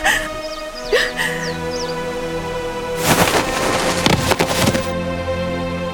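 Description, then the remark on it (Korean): Branches crack and splinter in a loud burst of snapping lasting about two seconds as a crown princess deliberately falls from a tree, preceded by a few faint bird chirps over a steady background tone. “세자비는 일부러 나무에서 떨어졌으나 죽지 않았다.”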